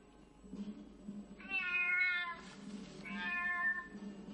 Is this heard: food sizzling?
no